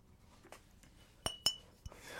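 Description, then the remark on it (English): Glass mason jar clinking a few times: two bright, ringing taps close together near the middle, with softer knocks before and after, with no talking. “Here, ASMR, glass ASMR.”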